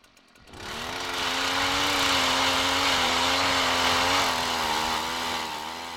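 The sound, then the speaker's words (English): A motorized ice auger starts up and drills test holes through the ice of a frozen lake, its engine droning loud with a broad grinding whir that holds for several seconds before easing slightly at the end. “Once we got to where we wanted to be on the lake, we had to drill a few test holes through the ice to make sure that we were actually in the right area.”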